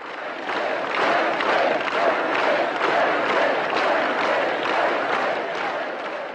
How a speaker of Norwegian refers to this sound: Frihet, frihet, ropte folk taktfast på et av de mange protestmøtene høsten 1989.